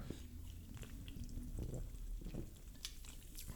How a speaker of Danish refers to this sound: Hold op, man kan høre det i høretelefonen. Altså, det, så ved man, er en god sodavand.